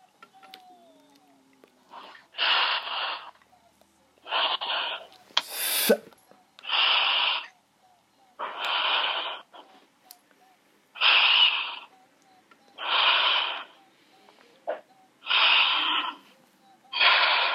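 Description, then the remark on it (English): Loud, heavy breaths in and out by a person breathing heavily five times on request, repeated in a steady rhythm of roughly nine rushing, airy bursts with short pauses between, with no talking. “I must hear you as you are breathing five times heavily.”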